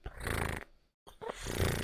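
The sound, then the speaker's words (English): A person imitates a cat purring, producing two rough, rumbling bursts of throaty vibration separated by a brief silence, fairly loud and low-pitched with a rattling, snore-like texture. “When you pet cats, they purr. You want me to make that sound?”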